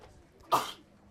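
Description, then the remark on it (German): A single sharp sneeze bursts out, brief and fairly loud, set against a quiet background with no talking around it. “Gesundheit.”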